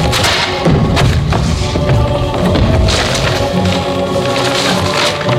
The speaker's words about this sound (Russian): подходят к картине, срывают ее со стены, рвут и топчут.